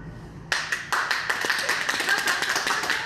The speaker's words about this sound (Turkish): Günlerdir tedavi gördükleri hastaneden onlara ayakta, hayatta tutan sağlıkçıların alkışları eşliğinde uğurlandılar evlerine.